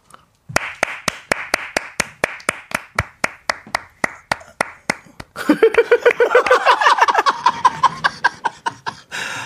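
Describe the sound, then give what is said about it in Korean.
Steady, evenly paced clapping, about twenty sharp claps, then the applause grows louder and denser, with voices laughing and whooping over it before it fades. “일어서 걸어 들어오시면 마지막에 그 패션 쇼 디자이너가 딱 마정 박수 받으면 들어올 때 있잖아요, 딱 그거 같아요.”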